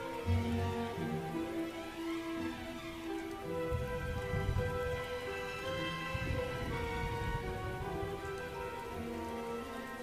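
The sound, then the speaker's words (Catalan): Steady rain patters on a hard street surface in Diagon Alley at night with the moon out, a continuous wash of drops, with melodic music playing over it throughout. “La pluja t'ha donat una experiència inolvidable i la lluna ha afegit una brillantor única.”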